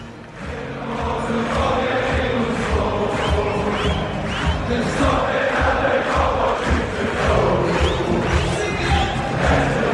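A big crowd of football fans sings together in a loud, sustained chant, voices blending into a dense roar with rising melodic swells and scattered shouts throughout.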